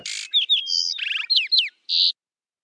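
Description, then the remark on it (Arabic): A small mother bird chirps and twitters as her chicks are returned with her to the nest, a quick run of about eight bright, high notes in uneven rhythm, with a short pause before a final call. No voices. “ويعيد الافراخ ومعهن امهن الى العش ترى لو تكلمت الام فماذا كانت تقول”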